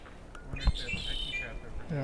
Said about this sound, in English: red-winged blackbird